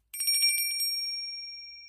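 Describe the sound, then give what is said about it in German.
A small bell rings with a quick flurry of bright metallic jingles, then a clear high tone lingers and slowly fades. It's fairly loud, with no talking. “Glöckchen klingelt.”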